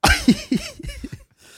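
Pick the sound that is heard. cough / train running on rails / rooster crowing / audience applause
cough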